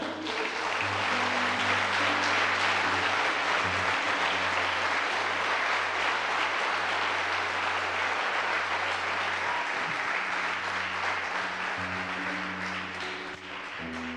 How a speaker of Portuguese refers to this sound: Aplauda Jesus.